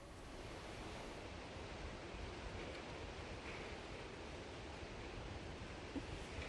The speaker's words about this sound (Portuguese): Muito vento e muita chuva. Nós estamos aqui na Praia do Rio Vermelho e agora venta tá bastante por aqui com várias rajadas. O mar está bastante revolto e, como a gente pode ver, o tempo está muito fechado.